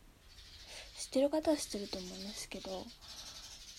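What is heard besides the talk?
birds chirping outside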